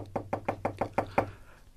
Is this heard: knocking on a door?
yes